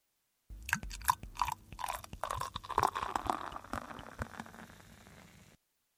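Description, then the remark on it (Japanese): Beer glugs steadily into a glass for about five seconds at an izakaya, with a crackling fizz of foam rising throughout and then easing off. No voices. “居酒屋でビールを飲みながら話す。うんさん、お疲れ様。一杯どうぞ。”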